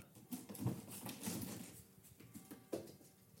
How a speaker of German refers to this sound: Das war die Katze, die versuchte auf den Kratzbaum zu klettern, wo aber schon der Kater liegt der offenbar was dagegen hatte.